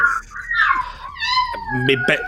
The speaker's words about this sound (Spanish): Mi, perra se ha puesto a ladrar de fondo. Eh, ¿Te gusta mi perra? Sí.